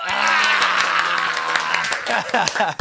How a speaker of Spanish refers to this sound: ¡Aplaudan, cabrón!